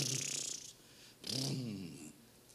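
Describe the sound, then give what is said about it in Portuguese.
A voice imitates a Volkswagen Beetle engine with two breathy rumbling bursts, the second a throaty, sputtering drone that fades away. “Quem já teve Fusca sabe que é bom. Não é gostoso aquele barulho?”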